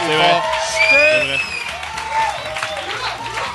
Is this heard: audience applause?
yes